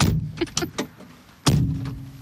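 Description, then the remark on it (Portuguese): A door is rattled and knocked a few times, three quick clunks, as someone struggles to close it, then slammed shut with a loud, booming thud that rings out and fades. No one speaks. “Estou com dificuldade em fechar esta porta.”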